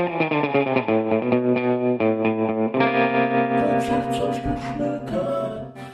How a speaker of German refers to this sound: okay, Intro. Jetzt kommt mein neues Intro und ich freue mich richtig